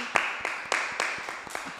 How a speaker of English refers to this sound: Yeah, clap it up for the EP.